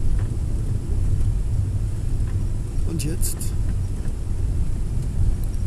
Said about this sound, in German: Jetzt weißt du, dass ich auf einem schwankenden Andenbus mich befinde.